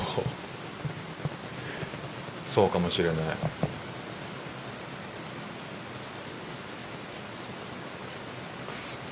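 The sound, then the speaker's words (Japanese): Steady, heavy rain from a thunderstorm in Singapore hisses evenly throughout, with no distinct thunder clap. A voice speaks briefly partway through over the constant rain. “雷雨の音を聞きながら雑談”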